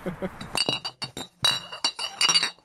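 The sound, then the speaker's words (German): Beer bottles clink together as another beer is opened, several times in an irregular run of bright, ringing glass knocks, some sharp and isolated, others in quick clusters, with a faint murmur of voice at the start. “wir machen uns noch ein Bier auf”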